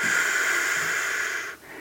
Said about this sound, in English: What you do is you take some deep belly breaths, right? So it's, and you slowly exhale, almost like you're breathing out of a straw.